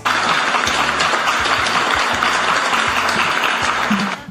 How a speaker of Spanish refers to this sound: Aquí, aquí me encanta esta serie de aplausos tan maravillosas que me están dando Close Friends.